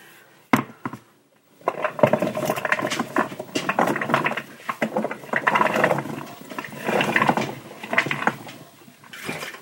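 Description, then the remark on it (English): A brief tap, then a steady rustling, clattering patter of dry food pouring into a metal pressure cooker, rising and falling in bursts for several seconds with no talking. “Okay, now I will pour some of these in here.”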